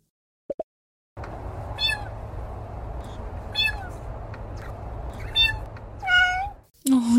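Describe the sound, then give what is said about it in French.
A captive pet blue jay, recorded in Florida, mimics a cat with a run of cat-like meows and mewing calls, several in a row, loud over a steady background hum, ending with a harsher squawk. “Et je vais te faire écouter la performance d'un splendide jet bleu domestique enregistré en Floride.”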